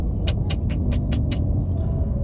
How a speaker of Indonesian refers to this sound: eh, masih macet bos hujan sudah berhenti tapi masih macet